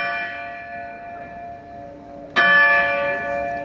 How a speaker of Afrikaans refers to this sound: Dit is die gelui van die groot klok by die hoofingang van die kasteel. Die klok is in 1697 in Amsterdam gegiet en weeg so 300 kg. Die klok is dis meer as 325 jaar oud